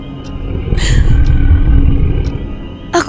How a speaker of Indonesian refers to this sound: Namun, ketika baru saja kakiku menyentuh lantai, terdengar suara parau bergumam dari arah luar.